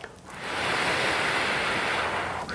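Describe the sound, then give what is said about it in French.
A long, steady breathy blow, a person imitating wind rustling through leaves as a quiet voice exercise called the owl exercise, swelling in quickly and holding a soft, hissing whoosh for a couple of seconds. “comme si c'était le, bruit du vent dans, les feuilles.”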